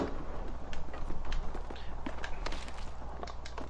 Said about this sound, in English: I'm pretty sure I heard footsteps near you.